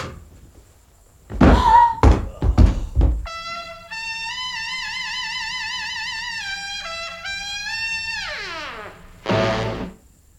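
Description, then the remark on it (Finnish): A few heavy wooden clunks, then the door of a large wooden cabinet in the corner of an office, big enough for a man to fit inside, creaks open slowly on a long, wavering, squealing hinge before a final dull thud. Fairly loud, with no voices. “Hän huomaa nurkassa suuren kaapin, niin suuren, että mies mahtuisi hyvin sen sisään, kävelee sen luo ja avaa oven.”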